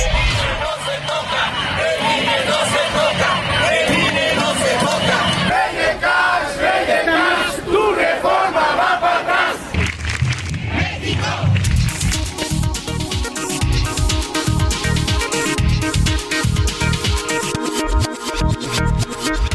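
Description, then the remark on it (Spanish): A large street protest crowd chants political slogans, including ones about AMLO and the INE, and shouts together in a loud, dense roar of voices; about halfway through it shifts to a more rhythmic, pulsing section with sustained tones. “Bueno, estamos escuchando este Nat Sound de lo que ocurrió ayer en las calles.”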